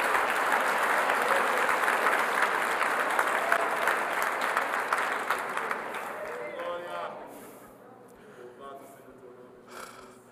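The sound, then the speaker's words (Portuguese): A crowd bursts into sustained applause, dense clapping holding steady for several seconds before thinning out, with a few voices calling out and murmuring as it fades. “Só aplaude quem não levou a criança pro Halloween também.”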